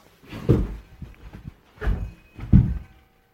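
A chair is kicked and knocked over, producing three heavy wooden thuds and scrapes, with a few lighter knocks between them and no voices.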